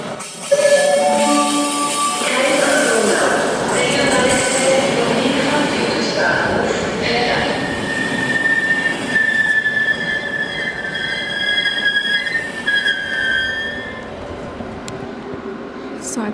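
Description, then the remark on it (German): A train rolls through the station in Krems, its wheels squealing in long, high metallic tones over a steady rumble of rail noise, loud throughout, with faint voices in the background. “Jetzt bin ich hier am Bahnhof.”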